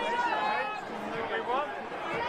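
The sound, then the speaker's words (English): Dense crowd chatter from an anti-lockdown protest in the UK, many overlapping voices blending into a steady, fairly loud babble with no single speaker standing out. “This was the UK Today anti lockdown protest. Play it for me.”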